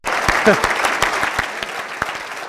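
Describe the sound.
A crowd applauds steadily, many hands clapping in a dense, continuous patter with sharp individual claps standing out, holding at a fairly loud level throughout; a brief voice cuts in near the start.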